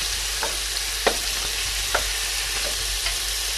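Goulash meat searing in a hot pan, a steady sizzle with a few sharp scrapes or clinks of stirring scattered through, no voices.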